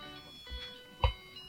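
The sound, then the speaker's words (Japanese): A musical birthday card, given to B.League chairman Shinji Shimada for his 50th birthday, plays a thin, tinny electronic melody with steady, beepy notes, fairly quiet, interrupted by a soft thump partway through. No one speaks. “ハッピーバースデーってことでバースデーカード音付き選手より元気な島田チェアマン、祝50歳ということで、ありがたいす嬉しいですね、なんかね。”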